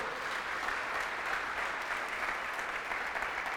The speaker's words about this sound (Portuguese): Eu posso ouvir um amém e um aplauso a Jesus aí, pelo amor do nosso Senhor?